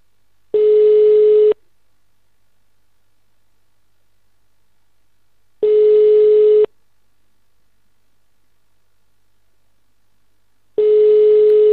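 A telephone ringing tone while calling the Tsvetlit plant, where no one picks up: three steady, mid-pitched buzzing tones about a second long each, separated by several seconds of silence, with no one talking.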